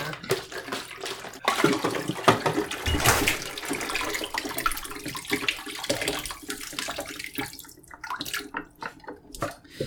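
Water runs and splashes steadily, fairly loud, as if rinsing under a tap during washing, then thins out into lighter trickles and drips toward the end. No one speaks.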